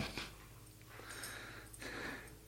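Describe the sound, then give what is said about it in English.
A dog tugs and plays with a rope toy, giving off quiet bursts of snuffling, snorting breaths and rustling, with a low steady hum behind it and no talking. “He's going after his rope now.”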